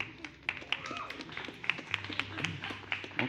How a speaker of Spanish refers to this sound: Un aplauso a la banda otra vez, por favor.